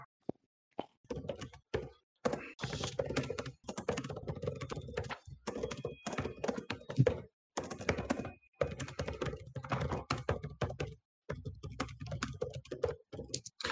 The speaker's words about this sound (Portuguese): A gente, pode tá, a gente pode falar o que eu estou escrevendo lá no WhatsApp. Agora não está atrapalhando ninguém. Oi? Eu não sei. Não sei porque eu tô digitando no WhatsApp pra ti, se eu posso falar.